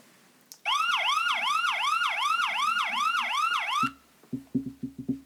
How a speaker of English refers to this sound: Hey! Hey, did you hear that? Uh, what? What? What? What? Oh my God! Did the sirens get to the window?